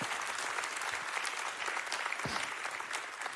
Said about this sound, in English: Listen, you guys are watching online right now. Come on, can we give it up for them? We love you guys so much.